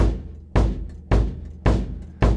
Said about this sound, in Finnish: Eli ensin soitetaan basaria, sitten soitetaan virveliä, Niin kuin, että se miksei saa sen kuulostamaan hyvältä. Sitten soitetaan tomeja, vuorotelle ehkä jopa. Sitten vähän komppia.